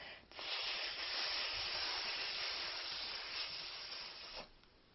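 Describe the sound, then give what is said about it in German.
A person hisses like a snake in one long, steady breathy stream lasting about four seconds, fairly loud, with no talking, while pretending to be a snake slithering across the floor from start to finish. “Dabei zischst du auch wie eine Schlange.”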